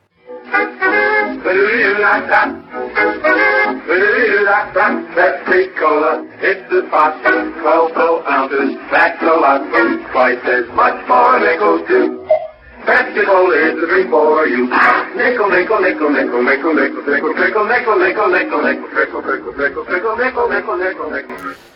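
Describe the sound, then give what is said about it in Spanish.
An upbeat Pepsi advertising jingle plays with sung vocals over music, sounding thin and band-limited like an old radio broadcast, running steadily for about twenty seconds with one brief break midway. “Entonces era una canción que escuchabas tú en la radio por todos lados porque aparte de ser canción, era anuncio, bla, bla, bla, y es, es exactamente esta canción.”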